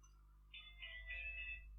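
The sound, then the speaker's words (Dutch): An alarm clock starts going off, a bright electronic tone sounding in a few quick pulses that blur into a steady chime, fairly quiet, with no one talking. “Sorry, dat was mijn wekker, maar ik weet waarom.”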